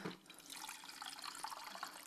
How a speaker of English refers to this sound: I'm not a wine connoisseur, but this is what you call a very, very healthy pour. Like, you're going to spill that. That's one glass, okay?